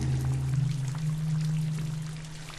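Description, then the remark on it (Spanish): Rain falls in a steady, dense patter with a low rumbling undertone, continuous throughout, easing only slightly toward the end. No voices. “Empieza a llover en el tablado de la tempestad y la anchura del agua abandonada disminuye la nave de su seguridad.”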